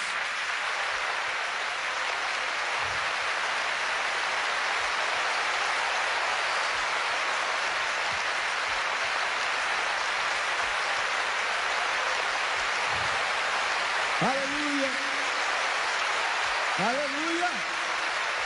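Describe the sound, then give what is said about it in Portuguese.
A crowd claps steadily in a dense, continuous wash of applause to glorify Jesus Christ, with a few voices calling out near the end. “Glorifica Jesus Cristo com palmas!”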